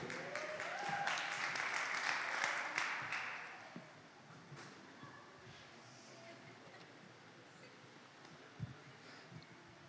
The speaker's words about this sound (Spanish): Fuerte aplauso por su vida.